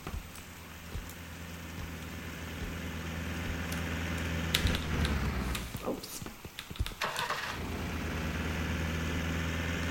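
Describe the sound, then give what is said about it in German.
A car engine idles with a steady low rumble throughout, under a constant rain-like hiss, with a few louder rattling bursts midway. “Ich will ein Auto, will ein Auto. Oh, da ist eins.”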